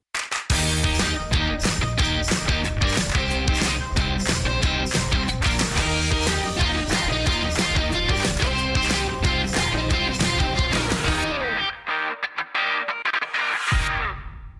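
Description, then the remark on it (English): A jingle plays: a loud, dense burst of music with heavy drums and distorted guitar-like tones for about eleven seconds, then it thins out and cuts off abruptly, with no talking. “Play the jingle.”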